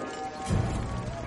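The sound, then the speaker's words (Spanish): Horse hooves clip-clopping briefly as a captain rides into a fort by day, with a heavier thudding step in the middle over a steady wash of background noise; no one speaks. “De día, el capitán llega cabalgando al fuerte.”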